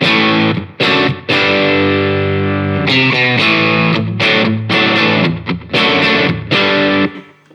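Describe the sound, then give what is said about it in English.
A heavily distorted electric guitar, played through a distortion pedal with the gain at 2 o'clock and the nature at 11 o'clock for a bit more bass, plays sustained chords and short riffs with brief pauses between phrases, loud, thick and bass-heavy, with no voices present. “Okay, now this is gain at 2 o'clock and nature at 11 o'clock, so you get a bit more bass.”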